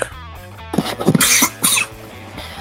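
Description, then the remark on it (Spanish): A person with a bit of flu coughs a few times in quick succession, fairly loud, with harsh raspy bursts broken by short pauses; no one speaks. “ah, perdón, un poco de gripe.”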